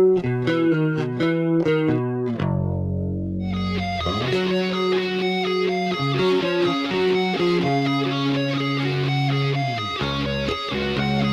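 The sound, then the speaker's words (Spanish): A picked bass guitar with a shimmering chorus effect plays quick bright notes, then a sustained low note, and moves into a busier, gritty-toned line that stays loud throughout. No one speaks. “El sonido de bajo con chorus.”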